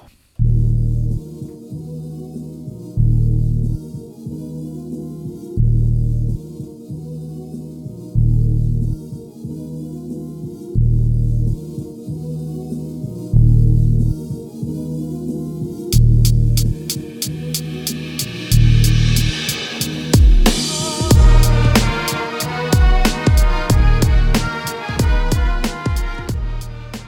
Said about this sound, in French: au pause musical, c'était l'excellent beatmaker …